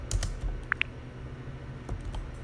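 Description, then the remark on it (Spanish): Two quick, crisp keyboard taps in close succession, a double tap on a symbol on the keyboard, a sharp double click standing out against a quiet, faintly rumbling background with no one speaking. “Eso, voy a hacer doble toque sobre este símbolo con el teclado.”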